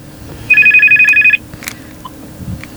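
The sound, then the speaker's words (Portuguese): A telephone rings with an incoming call, one short burst of bright, rapidly warbling electronic trill lasting under a second, clear, followed by quiet room noise with no talking. “Pronto, vamos então a mais uma chamada. E esta vem para este telefone.”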